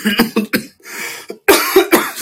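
A person coughs repeatedly, a quick burst of three harsh coughs, a brief pause with a raspy breath, then another rapid cluster of loud coughs.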